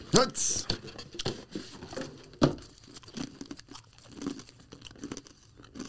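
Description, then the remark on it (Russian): A cookie with a question inside is taken out and cracked open, with a burst of crisp crunching and crinkling at the start, then scattered sharp snaps and a loud crack midway, with faint voices murmuring underneath. “Ты достаешь печеньку, читаешь вопрос, мы на него отвечаем”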